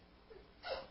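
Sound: sneeze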